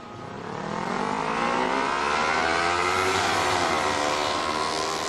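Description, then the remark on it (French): A motorcycle takes off at full speed out of a side street, its engine revving and roaring loud enough to make window panes vibrate, pitch climbing steadily through the gears as the loud, sustained growl builds in the first seconds and holds intense. “Mais une moto démarre en trombe. Le vacarme du moteur fait vibrer les vitres.”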